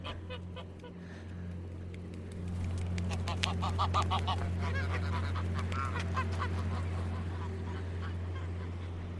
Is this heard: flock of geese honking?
yes